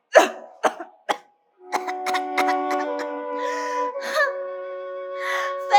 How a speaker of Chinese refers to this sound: 我看不清楚前方的路，我只能边咳嗽边忍着不舒服往前走。啊，我实在是太不舒服了。